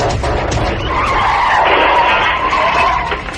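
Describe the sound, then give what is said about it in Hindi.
A car's tires screech in a loud, sustained skid lasting a few seconds, the squeal wavering in pitch over a rumbling engine with no voices present, as the car crashes head-on into a tree and its windscreen shatters. “गाड़ी का बॉनेट अपने आप अचानक खुल गया और सामने का शीशा चकनाचूर होकर ऐसा बिखरा गाड़ी सीधे सामने पेड़ से जा टकराई”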